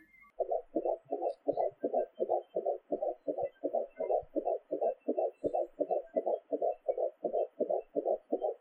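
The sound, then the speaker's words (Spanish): A rapid fetal heartbeat of a baby from a monitor, a steady galloping whoosh-thump repeating about three times per second, muffled, with no talking. “Bueno, pues eso que ha sonado tan rápido es el latido de nuestro o nuestra bebé.”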